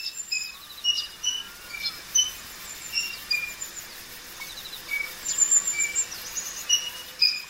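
A water rail's winter call: short, sharp, high-pitched chirps repeated in loose rhythmic bursts over a steady hissing background. No one speaks.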